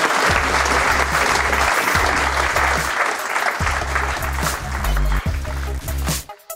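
A crowd applauds steadily for several seconds, a dense wash of clapping over a thumping low musical beat, before it cuts off abruptly at the end.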